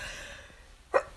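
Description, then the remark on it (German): A single short, sharp sneeze bursts out after a quiet moment, brief and muffled rather than loud, with no talking around it. “Gesundheit.”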